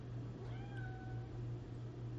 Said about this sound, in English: That was my cat.